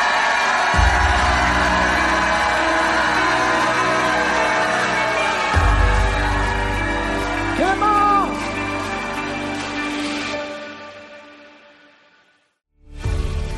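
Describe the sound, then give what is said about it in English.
An audience shouts and cheers loudly for several seconds, with deep thumping booms underneath and a few rising whoops, before the crowd noise fades away and cuts off. “Jump up and shout like you never shouted in your life.”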